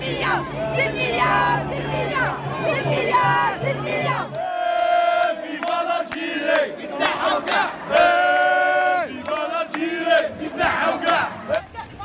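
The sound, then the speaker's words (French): A large crowd of people making revolution in Algiers, Algeria, chants and shouts in unison, loud, with rhythmic rising calls and overlapping voices throughout, like a street protest in full swing. “Après les cours à Alger, je vais voir les gens faire la révolution avec le sourire.”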